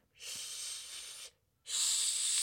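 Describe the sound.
A voice makes two long, steady shushing sounds like white noise into a baby's ear to help it fall asleep, fairly loud, with a short breath-pause between them and no speech.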